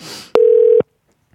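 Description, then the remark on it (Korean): A single steady electronic telephone tone from a call placed by the radio show Lee Eun-ji's Gayo Gwangjang to wake a listener sounds for about half a second, loud, with clicks at its start and end, following a brief burst of noise. “좀 전화 걸어볼게요.”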